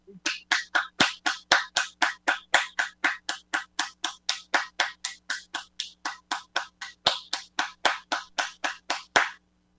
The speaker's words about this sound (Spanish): Aplausos, por favor.